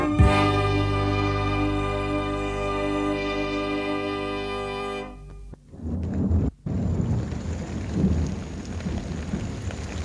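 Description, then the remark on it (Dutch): A sustained ringing tone lasts about five seconds, breaks off sharply, then a heavy thunderstorm with large hailstones rolls in: loud thunder rumbles over steady heavy rain, with one brief dropout partway through. “kwam een hevig onweer met grote hagelstenen.”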